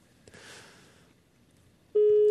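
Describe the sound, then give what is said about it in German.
A mobile phone starts ringing abruptly outside, a loud, steady electronic tone that cuts in after a stretch of quiet background hiss and rustle. “Dein Handy klingelt draußen.”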